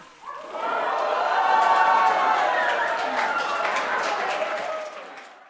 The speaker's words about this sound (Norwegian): ja, full jubel i salen der når Bob Dylan vant prisen